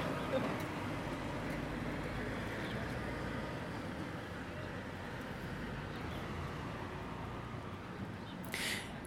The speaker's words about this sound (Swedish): väntar jag på lastbilen.